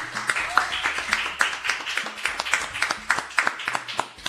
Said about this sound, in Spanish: Continuamos con el mañana, sí, siendo las 11.04 minutos y voy a pedir un aplauso. Tenemos un invitado, súper invitado, el señor, yo le voy a decir así, el chino Navarro, sí.